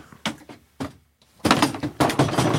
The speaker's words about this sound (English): literally just threw a chair. Or really, it's more of a stool type thing.